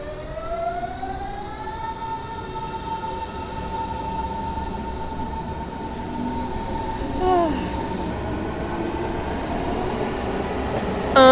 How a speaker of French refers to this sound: petit souffle dans l'air des tramways qui passent.